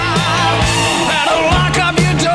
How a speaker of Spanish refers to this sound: Y escuchen las guitarras, no tienen distorsión, es kingy, kingy, kingy.